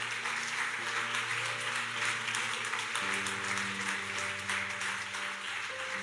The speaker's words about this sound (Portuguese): Aleluia! uma, forma de palmas, uma salva de palmas para o nosso Deus.